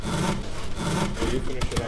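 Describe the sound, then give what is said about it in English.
Steady back-and-forth hand sawing through wood as kids build picnic tables and benches for a park outside their school, fairly loud, with rhythmic rasping strokes repeating throughout the short stretch. “They'll use power tools and saws”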